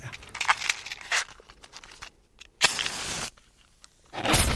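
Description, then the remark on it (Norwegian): A fire is lit in a fireplace: dry crunching and tearing of paper and kindling, followed by a sharp, steady hissing burst and another rising rush of noise at the end, with no talk. “så fyrer jeg på peisen i dag òg.”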